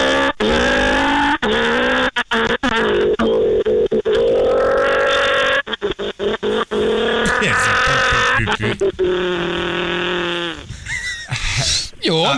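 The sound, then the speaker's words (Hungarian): A person vocally imitates a rally car, with a loud, continuous buzzing engine drone that rises and falls in pitch through gear-shift revs and sharp stutters, ending in a squealing skid. “Akkor egy rally autóval kezdjünk, oké?”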